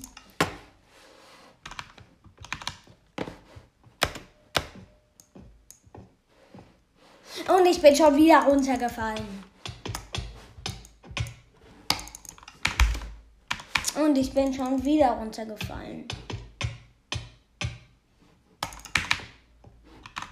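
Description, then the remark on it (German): Rapid, steady clicking of a computer keyboard as the W key is pressed over and over to walk forward in a video game. Sharp, bright taps continue throughout, while a person talks in bursts over the typing partway through. “Weil ich laufe gerade einfach lang und also ich drück, drück einfach die ganze Zeit auf, auf W, also auf mit W läuft man ja vor, für die, die es nicht wussten.”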